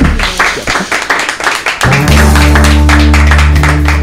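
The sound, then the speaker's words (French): A burst of applause from a small group for an invited guest, brisk overlapping claps, with a low sustained musical tone swelling in underneath after a couple of seconds while the clapping continues. “Bon, bah, je pense qu'on peut applaudir notre bah invité.”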